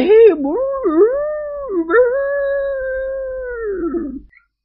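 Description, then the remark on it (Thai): A human voice imitates a dog's howl as part of a mournful wail, a long wavering cry that dips and rises in pitch before trailing off, loud, with no other talking. “บางทีก็ทำเหมือนเสียงหมาหอนประกอบไปด้วย”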